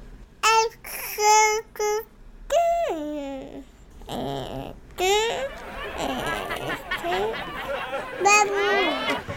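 A baby babbles in high, sing-song bursts of baby talk, with rising and falling coos and short pauses between sounds, clear with no other voices.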